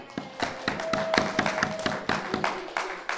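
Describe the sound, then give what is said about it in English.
An audience applauds to thank two people who served that morning, with steady, overlapping handclaps, sharp slaps packed closely together and keeping a fairly even level throughout, with no voices heard. “Can we just give these guys a round of applause?”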